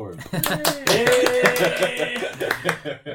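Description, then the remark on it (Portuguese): Applause celebrating the show becoming available on Spotify, with sharp, irregular claps across about three seconds, loud and uneven, mixed with voices calling out or laughing over the clapping. “Aí, aplausos para esse momento tão esperado. Uh, Spotify aplaude,”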